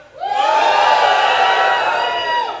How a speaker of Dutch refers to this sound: Maar zullen wij eens proberen om op zijn Noord-Hollands te juichen? Met een beetje passie. Oké? Shalom, kunnen we juichen?